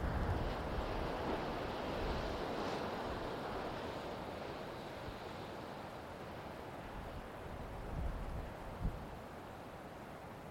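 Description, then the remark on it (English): Steady ocean surf washes in continuously, a broad rushing hiss of waves with a few slightly louder swells near the end, mixed with a light wind rumble and no voices. “As you hear the sound of the waves, imagine them washing over the body.”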